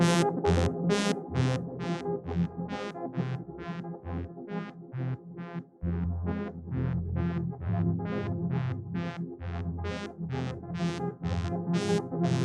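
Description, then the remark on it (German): A dense granular synth pad with shortened grains and increased grain density wobbles steadily, built from rapid, evenly pulsing bursts of bright harmonic tone over a thick, sustained low drone, with no one speaking. “Ja, und wenn man da jetzt die Grain verkürzt und dann die Dichte etwas erhöht, dann kriegst du ja schon diesen, diesen wabbelnden ja, Flächensound hin.”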